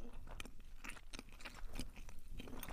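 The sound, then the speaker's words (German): Wet chewing sounds from a person eating with the mouth shut, a steady run of soft smacks and squishes repeating irregularly, no talking. “Das ist ja Dieses, Schmatzen irgendwie. so, so, Mund ist ja zu.”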